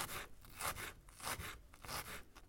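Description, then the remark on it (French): A knife dices small onions and shallots on a cutting board, making a steady run of soft, scraping cuts about twice a second, fairly quiet, with no talking. “Donc là, on va couper, on va prendre les petits oignons aussi, puis on va les couper en dés.”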